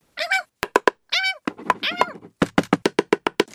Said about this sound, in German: Dort hörte man es dann rumoren und hämmern.